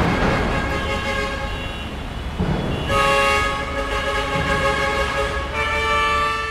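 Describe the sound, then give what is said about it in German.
Loud city street traffic in Jakarta, Indonesia, with a steady engine rumble and many trucks passing, overlaid by long, blaring truck horns that sound repeatedly and overlap; no one speaks. “Wir hören jetzt schon, äh, wie sich der Verkehr anhört in Jakarta.”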